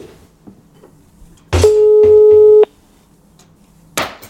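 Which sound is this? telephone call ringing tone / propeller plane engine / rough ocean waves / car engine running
telephone call ringing tone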